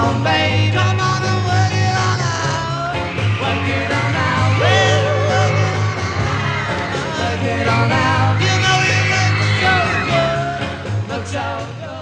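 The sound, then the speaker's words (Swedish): Shrill, ecstatic screaming from a crowd of girls pours continuously over a loud live rock band performing on The Ed Sullivan Show, the shrieks rising and swelling throughout without a break. “Ni hör väl hur eh, tjejerna skriker där av ren eufori och mani.”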